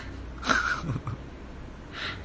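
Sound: voice imitating a sneeze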